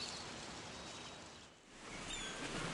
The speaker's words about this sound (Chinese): 海浪敲打着岛屿的岩石